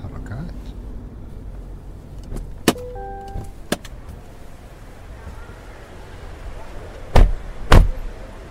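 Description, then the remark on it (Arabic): A car idles low and steady as it comes to a stop at a hotel entrance in Dubai, with a brief electric window whir and several sharp door clunks, the last two loud and close together near the end. “ها وصلنا هذا هو الفندق هنا ما شاء الله هذا كله فندق انت بدبي يا حبيبي روح انزل انت على ما اشوف لنا موقف ما يحتاج وقف عند الباب والفالي راح يوقف السياره بدالك”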